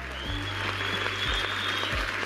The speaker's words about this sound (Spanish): Recibámonos con la lluvia de aplausos.